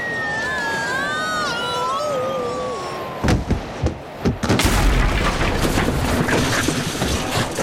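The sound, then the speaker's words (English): A wavering, sliding whistle gives way to a loud crash as a roller skater crashes through the wall of a roller rink, several sharp impacts followed by a sustained rumble and clatter of falling debris. “Oh, he's crashed right through the wall of the roller rink.”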